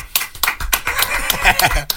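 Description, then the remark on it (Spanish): An applause sound effect fired off during a show, many hands clapping in quick, uneven bursts, fairly loud, with voices talking and laughing underneath throughout. “Acá hay que disparar aplausos y gritos.”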